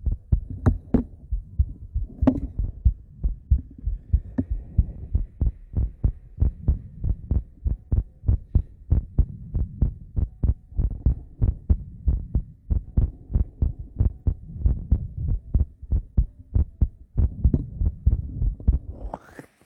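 A woman's steady heartbeat thumps in a regular, low, muffled rhythm, roughly two beats per second, with soft rustling noises near the start and end and no speech.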